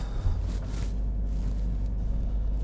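A steady, low road rumble fills the inside of a moving car, a constant drone with faint hiss above it and no one speaking; recorded on a DR-07X recorder with a pin mic during a car journey.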